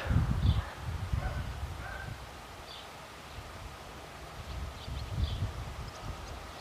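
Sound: leaves rustling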